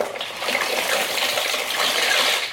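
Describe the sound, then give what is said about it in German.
Dry multicoloured shell pasta poured into a pot of water, a steady rushing, rattling pour that lasts a couple of seconds before tapering off. “meine geilen Muschelnudeln in ja. Multicolor. Achtung ins Wasser.”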